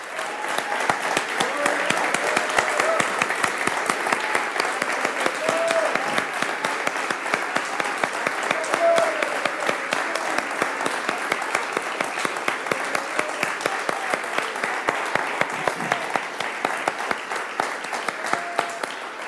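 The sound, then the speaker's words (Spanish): An audience claps steadily for about twenty seconds, a dense, even wash of many hands at a consistent loud level, with faint voices murmuring underneath. “¿Le podemos dar un aplauso?”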